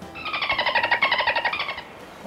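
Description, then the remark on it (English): A voice imitates dolphin chatter to call dolphins: a rapid, rhythmic burst of high, squeaky pulsed chirps lasting under two seconds, clear with nothing else around it. “… can speak dolphin? Sure sounds like it.”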